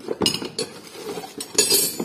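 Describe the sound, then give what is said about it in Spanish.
Motorcycle spare parts, kept in an office, clink and clatter as they are handled, a handful of bright metallic knocks and jingles coming in irregular bursts with no talking. “Estos son todo piezas de repuesto de la moto.”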